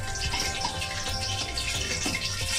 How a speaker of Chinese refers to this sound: 然后大家听到这个嘣嘣嘣嘣嘣的声音，这个时候其实是这个水蒸气，水和油接触之后变成了水蒸气，它在蒸发，是吧？